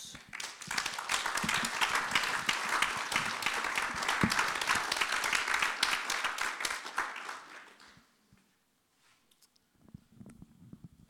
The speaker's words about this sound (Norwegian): Gi ham en applaus.